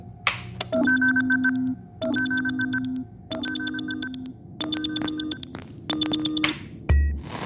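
A phone rings in five repeating electronic bursts, each a layered warbling tone of a bit over a second, fairly loud, followed by a short click at the end.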